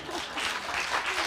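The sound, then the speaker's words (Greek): Steady audience applause, a dense wash of many hands clapping at even loudness throughout, with no clear individual claps standing out. “Δώσε άλλο χειροκρότημα, παρακαλώ.”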